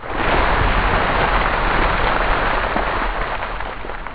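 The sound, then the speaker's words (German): A loud rush of ice water pouring from a specially built dumping machine over Bill Gates's head for the Ice Bucket Challenge, a dense continuous splash that holds steady for about four seconds with no voices. “Allerdings hat der dafür eine extra Maschine konstruiert.”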